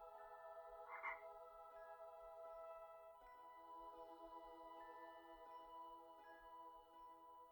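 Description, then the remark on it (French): A toad held in Neville Longbottom's hand croaks in a steady, droning chorus of low, buzzing calls that continue throughout, with a louder croak near the start; no voices are heard. “Neville long du bas te regarde avec son crapaud à la main.”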